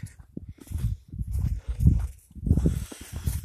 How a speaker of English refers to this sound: We got a dusting of snow last night. You can hear it crunching under my feet.